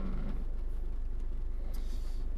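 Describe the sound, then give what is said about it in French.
Steady low engine rumble from inside a car crawling through a traffic jam in the rain on the way to work, with a constant soft hiss and a brief passing whoosh near the end; no one speaks. “et que je suis en voiture en arrivant à mon boulot dans les bouchons et sous la pluie”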